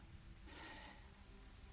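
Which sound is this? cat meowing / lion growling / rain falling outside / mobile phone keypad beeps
rain falling outside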